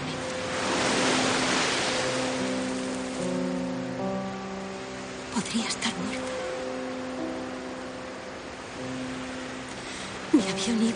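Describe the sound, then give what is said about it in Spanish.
Calm sea waves break against rocks in a soft, steady wash, swelling early and then settling, beneath sustained tonal music chords that carry through the whole scene. “Se sientan a observar la sola romper contra las rocas en un día con mar tranquilo.”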